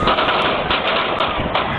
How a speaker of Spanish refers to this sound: El pánico se apoderó de la multitud en Kansas City. Miles de personas corrían despavoridas y desorientadas después de escuchar más de un disparo luego de que culminara un desfile frente a Union Station,